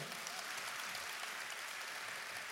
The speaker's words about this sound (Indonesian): Kalau mau tepuk tangan jangan separuh-separuh kota Solo.